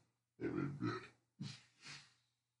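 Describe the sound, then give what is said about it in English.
Two loud, throaty beer burps, the first long and rumbling, the second shorter and rising, separated by a brief pause with no talking. “Sorry, beer burps.”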